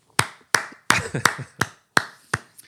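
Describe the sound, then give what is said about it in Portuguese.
Around eight sharp hand claps given as a round of applause, in a loose, slightly uneven rhythm, like one person clapping alone; no talking. “Eu ia pedir a todos os furões que, uh, que, que, estão a ouvir agora e que estão a ver que parassem o vosso dia uh, e batessem uma salva de palmas.”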